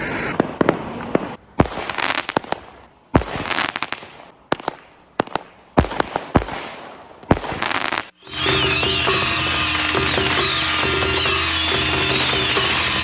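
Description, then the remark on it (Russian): A rapid series of sharp, loud firecracker bangs bursts in uneven clusters, then gives way to a dense, continuous crackling and hissing barrage of fireworks, set off at a deserted spot near Taitung, Taiwan, during the Chinese New Year days. “взрывают фейерверки, петарды, и чтобы отпугнуть злых духов”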